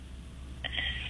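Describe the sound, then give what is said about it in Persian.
A call made through an internet app, not a phone line, cutting in and out: a steady low hum, then an abrupt burst of harsh, warbling, high-pitched digital garble that stutters briefly. No one speaks. “باید فقط قطع وصل میشه تلفنتون عزیز نمیدونم این تلفنتون سیمش اشکال داره و این تلفن دستیتون نیست”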